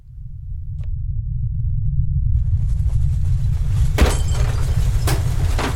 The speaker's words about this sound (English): Uh, the ground started shaking. Uh, that hideous roar was not from this world.